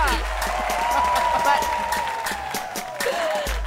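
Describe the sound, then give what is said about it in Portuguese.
A show's audience claps steadily and densely for a few seconds after the 'Momento Fã Academia' segment, with a high whooping voice riding over the sustained applause. “Obrigada, minha plateia maravilhosa!”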